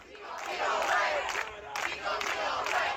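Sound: protest crowd chanting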